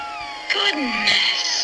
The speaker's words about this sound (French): C'est le chat. Goodness, c'est le chat qu'on entend. On entend le chat.